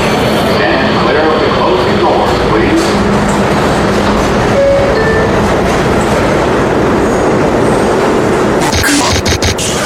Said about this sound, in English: This is a Queens-bound E train via the F line. The next stop is 42nd Street, Bryant Park.